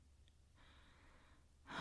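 A slow, soft, quiet breath drifts in, a drowsy exhale lasting about a second, followed by a louder, rougher intake of air right at the end. No talking.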